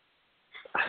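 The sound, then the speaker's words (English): A dog plays with a squeaky toy, a soft squeak followed by a louder, longer squeal near the end, against a quiet background with no talking. “sorry, I, I have a baby playing with one toy and a dog playing on the other.”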